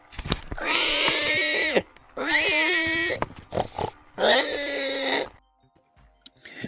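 A pig oinks and grunts in three long, loud, drawn-out squealing calls, separated by brief pauses, with a short quiet stretch at the end and no talking.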